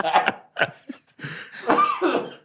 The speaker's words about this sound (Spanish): No, no lo disimules con un tosido, güey.